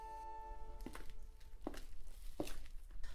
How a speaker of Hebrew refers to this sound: מחוץ לדלת נשמעו צעדים.